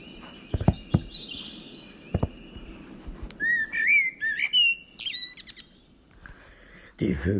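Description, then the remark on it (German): Birds chirp and whistle in a lively outdoor chorus, several short rising calls and trills, with a few sharp knocks and a low rumble near the end. “Zwischen, zwitschern. Ja, das stimmt.”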